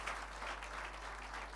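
applause

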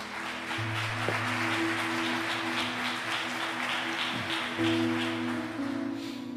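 audience applauding

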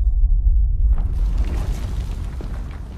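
thunder rumble

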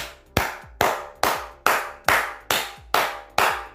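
clapping

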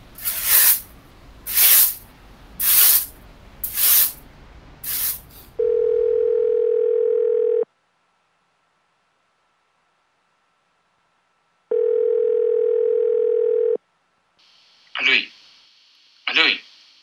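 telephone ringing tone

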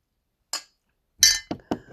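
drinking water

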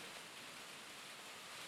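rain falling

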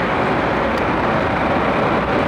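car interior road noise

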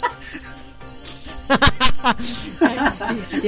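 crickets chirping

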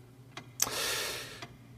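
grandfather clock ticking

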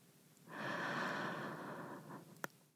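slow deep inhaling breath

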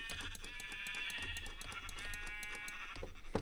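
video game sheep bleating

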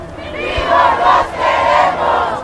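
protest crowd shouting

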